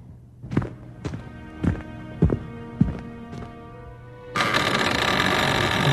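Six slow, evenly spaced footsteps thud over a low hum as someone walks toward a door, then a loud, steady rushing noise abruptly takes over for the last couple of seconds.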